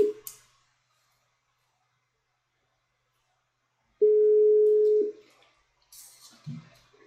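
A telephone ringback tone on an outgoing call to coach Paweł Barylski during a live program streamed on YouTube: a steady mid-pitched tone lasting about a second, preceded by a short trailing tone, then silence, followed by faint rustling and a brief click.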